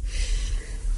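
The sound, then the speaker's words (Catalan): A single breathy sneeze bursts out over a low rumbling background, sharp and forceful, with no talking around it. “Salut, perdó, salut, salut.”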